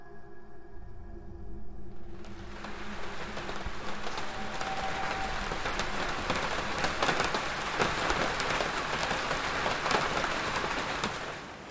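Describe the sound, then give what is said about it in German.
Heavy rain pours down on a hard surface, a dense, steady hiss of countless drops that swells in after a quiet start and stays loud throughout, with no voices. “Wenn es stark regnet, kommen die Bilder alle wieder zurück.”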